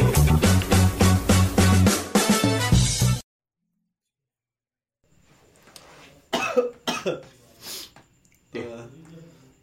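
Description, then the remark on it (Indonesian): After a short burst of music and a moment of silence, someone with the flu lets out a string of four or five harsh, rasping coughs, spaced unevenly with breathy noises between them. “Kenapa lo? Kok batuk?”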